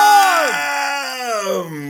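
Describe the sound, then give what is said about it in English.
Loud voices of anti-lockdown protesters in Melbourne chant a drawn-out, sing-song phrase, the pitch sliding down and then holding steady over about two seconds, unaccompanied. “the other chant they do come up with every day, every day.”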